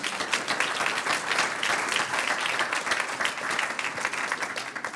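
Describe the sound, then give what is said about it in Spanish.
A crowd breaks into sustained applause for the Lord, dense overlapping claps forming a steady, bright wash of sound that holds at an even loudness for the whole stretch. “Un aplauso al Señor.”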